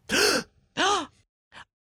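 A person lets out two loud, theatrical gasps in quick succession, then a short, softer intake of breath, with no talking.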